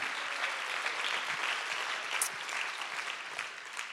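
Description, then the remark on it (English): A crowd claps steadily, a dense patter of many hands at an even, moderate loudness, continuing without a break for the whole few seconds with no voices standing out. “Let's go ahead and just clap his hands.”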